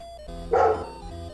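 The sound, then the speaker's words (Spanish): Someone imitates a dog with one short, gruff bark, fairly loud, over a steady low hum in the background. “Ah, mm, perro, ¿verdad? Perro, modo perro, güey.”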